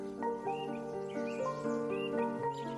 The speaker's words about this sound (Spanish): Observa los pájaros que te rodean. Corre tras ellos persíguelos.